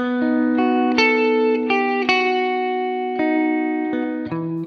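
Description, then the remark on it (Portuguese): An electric guitar played through a reverb pedal plays a slow series of picked notes that ring out and blend into one another, each fading gently under a wash of reverb, steady and fairly loud with no voices. “Isso traz uma profundidade do som, por simular a reverberação natural das ondas sonoras nas paredes de um ambiente, que, diferente do eco, se torna um som que vai perdendo sua intensidade gradativamente depois de ele ter sido emitido.”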